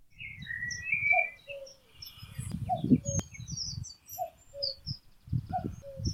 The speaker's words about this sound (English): Sue Endicott has recorded the first cuckoo of spring.